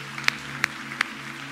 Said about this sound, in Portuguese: Você pode aplaudir quem está do teu lado nessa, nesse dia maravilhoso aqui. Cada um de nós aqui.